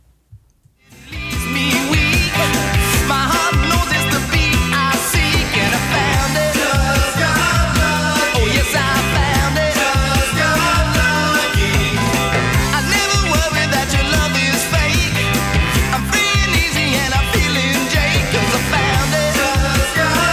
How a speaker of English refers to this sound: That's like that uh, that British pub rock sound that doesn't have any context in America because it was kind of part of the new wave.